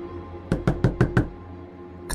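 Five quick, evenly spaced knocks on a bedroom door in the middle of the night, fairly loud, followed by silence and a brief faint tap at the end.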